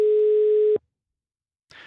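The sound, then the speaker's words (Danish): A telephone busy signal heard while calling numbers in Nakskov, Denmark: a steady electronic tone sounds for under a second, cuts off into silence, then starts again. Clear and fairly loud, with no talking over it. “Altså har de bare ekstraordinært travlt i Nakskov? 1, 2, 3, 4, 5, 6, 7 nummer har vi ringet til.”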